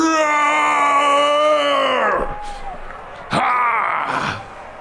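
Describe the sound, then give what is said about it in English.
A person voices a big roar: a long, loud, groaning cry that sags in pitch over about two seconds, followed by a shorter, rougher second burst. “in her eye and just lets out a, a big roar.”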